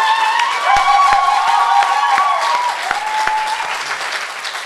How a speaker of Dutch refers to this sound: Eh, ja, mag een applaus.